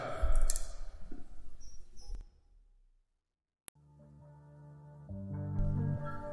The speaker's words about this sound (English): Let me get these cards shuffled up real quick. One more time, get a nice little quick shuffle, then we're gonna get into this reading.